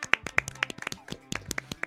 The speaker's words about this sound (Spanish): a quien por supuesto vamos a aplaudir.